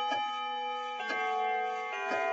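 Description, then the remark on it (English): A grandfather clock ticks slowly and steadily, roughly once per second, in a room modelled on the late Victorian period. Each tick is a clear knock over a sustained ringing tone in the background. No one speaks. “That is a relic known as a grandfather's clock.”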